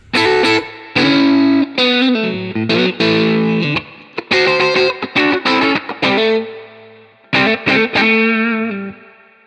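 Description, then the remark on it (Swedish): Distorted electric guitar played in a mid-position pickup setting, with loud chopped chords and short bursts separated by brief gaps, bright and harmonically rich with a slightly hollow, quacky tone. “mitt eh, eh, äggläget mellan mitt och hals.”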